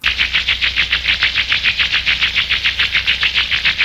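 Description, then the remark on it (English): A magic staff's power effect as the staff is held out and lights up: a loud, rapidly pulsing shimmer that throbs about seven times a second, steady and continuous throughout, with no voices. “that's the sound of the, of the staff”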